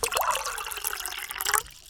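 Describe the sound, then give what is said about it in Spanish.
Water is poured briefly into a glass or cup for drinking, a bright, splashing trickle lasting about two seconds before cutting off. No one speaks. “pero tomemos un poquito de agua, ¿crees?”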